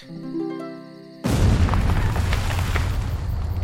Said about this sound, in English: Who needs shovels when you have explosions? If there was anything in there, you've just destroyed it.